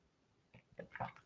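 A few quick, soft slurping sounds as someone takes a short sip of coffee, with wet mouth noises and a brief swallow. No one speaks.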